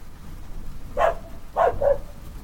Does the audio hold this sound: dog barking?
yes